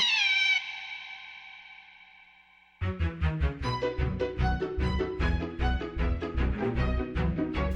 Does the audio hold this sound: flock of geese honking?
no